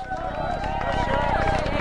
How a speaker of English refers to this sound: You can hear them running out into the ground, which is fantastic to see that the Auskickers are giving the uh, guard of honour, getting behind the Sharks.